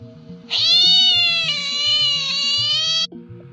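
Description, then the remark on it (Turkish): A cat lets out one long, drawn-out meow, loud, lasting a few seconds over a low, rhythmic musical backing with no talking. “Bu bir kediydi.”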